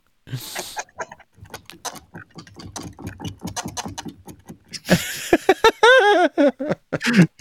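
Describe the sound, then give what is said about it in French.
A door creaks slowly in a stream of rapid clicking ticks, then swells into loud, wavering squeals and groans, dry, arranged as a musique concrète piece with no voices. “un truc de Pierre-Henri qui s'appelle Variation pour une porte”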